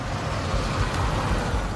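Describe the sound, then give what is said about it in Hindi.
A car driven by a woman on a deserted road in the early morning, stopping to help someone; its engine rumbles with a steady, low, broad roar that holds at an even loudness for a couple of seconds. No voices. “खुशकिस्मती से गाड़ी चला रही एक महिला ने उसकी मदद के लिए गाड़ी रोकी”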